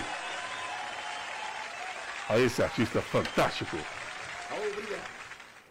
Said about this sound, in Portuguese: Aí os nossos aplausos. Obrigado, o reconhecimento do nosso público ouvinte